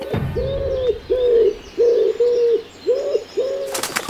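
Pigeons coo in a steady series of about six low, rounded notes, fairly close and clear, with faint chirping from other birds in the background and no talking.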